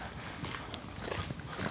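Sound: horse-drawn carriage hooves clip-clopping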